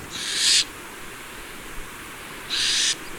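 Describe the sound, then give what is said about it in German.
An owl imitates a rattlesnake's rattle: two loud, raspy, high-pitched buzzing hisses, each about half a second long, separated by a pause of roughly two seconds over a faint steady background hiss. “Und dabei imitieren sie dann unter anderem das Geräusch von Klapperschlangen, was sehr lustig ist.”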